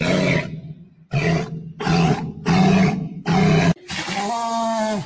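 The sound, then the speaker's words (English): A walrus lets out deep, rumbling baritone growls in five loud bursts separated by short pauses, followed by a longer, more tonal moaning call at the end. “they they have a deep baritone growl that they will use.”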